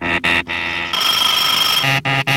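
A continuous metallic alarm clock ring lasting about a second, set between bright, punchy musical chords of a lively cha-cha-cha that stop and start around it.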